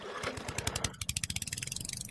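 A small lawn mower engine chugs on a real grass lawn aboard a cruise ship at sea, its rapid putt-putt pulses quickening into a steady, even drone, with no voices over it.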